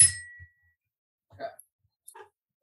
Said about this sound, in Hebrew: תן לי לתת לך בגונג, גמרת עכשיו משהו חכם.